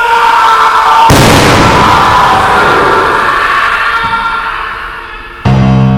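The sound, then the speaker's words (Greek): A single loud shotgun blast, firing three hundred lead pellets, erupts over a steady droning tone, its sharp crack trailing off into a long, fading rumble before another abrupt burst of sound cuts in. “Τρακόσια μολυβένια σφαιρίδια λύτρωσης ξέρασε η κάνη.”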